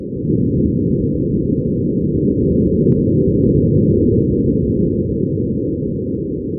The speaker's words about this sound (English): Well, this week, NASA's Jet Propulsion Laboratory near Pasadena posted a series of sound files on the web recorded by two microphones aboard its Perseverance rover. Here's the sound of Martian wind hitting the microphone.